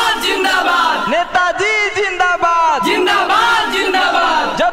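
A loud crowd chants election rally slogans of "Netaji zindabad" in unison during village elections, voices rising and falling in repeated shouted bursts that fill the whole few seconds, with no single speaker standing out.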